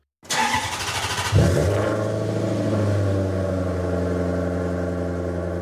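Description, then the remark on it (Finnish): A starter whirs for about a second before a Maserati sports car engine fires up, settling into a loud, deep, steady rumbling idle, with no voices. “Mä ymmärrän hirveän hyvin Maseratia tässä näin. Se on just oikealla jäljellä. Kyllä. Ukkosen jyrinä.”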